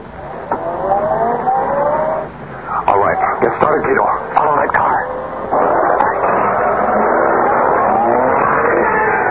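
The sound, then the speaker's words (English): A man gets into a car; its engine whines and revs, then a burst of clattering mechanical noise, before settling into a steady, loud rumble of the car driving off. “He's getting into the car.”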